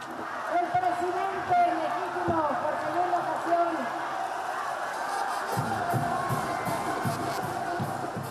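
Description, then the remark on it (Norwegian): A crowd of nearly several tens of thousands cheers and shouts at a protest rally in Mexico against the president's tax and oil-industry reforms, greeting left-wing politician Andrés Obrador; a steady, loud roar of many voices with individual yells and whoops rising above it throughout. “Under står venstrepolitiker Andrés Obrador og tar imot jubel og vivarop fra ei menneskemengde på nesten flere titalls tusen.”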